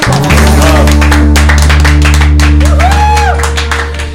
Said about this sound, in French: Bah, je pense qu'on peut applaudir nos deux comédiens, s'il vous plaît.